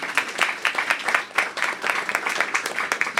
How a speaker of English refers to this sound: We, we lost Maria. So, quick round of applause for Maria's family, Maria.